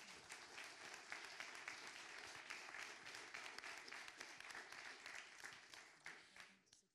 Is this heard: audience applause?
yes